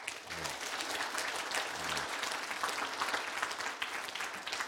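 A large group claps steadily and continuously to give the Lord a hand one morning after a prayer. It is a dense wash of applause, with a few faint voices murmuring underneath.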